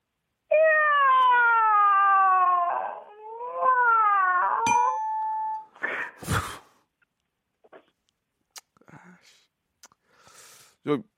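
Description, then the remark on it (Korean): A person's voice imitates a hungry cat with two long, drawn-out wavering meows, followed by a few scattered clicks, thumps and short noises, ending in a brief louder burst. “예, 고양이 배고픈 고양이 있습니다.”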